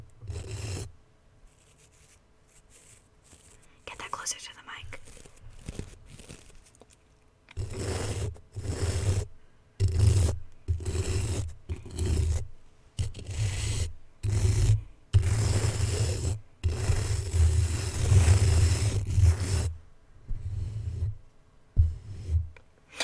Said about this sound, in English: Hi, guys. it's time for some ASMR. Toothbrush, broken toothbrush ASMR. We're starting with this.